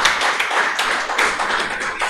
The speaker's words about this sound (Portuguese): Você pode aplaudir o Senhor nessa noite? Aleluia!